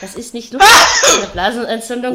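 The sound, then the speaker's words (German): A single loud, sudden sneeze bursts out in the middle of someone talking, and the speech carries on right after it. “Gesundheit wünsche ich nicht mal meinem ärgsten Feind.”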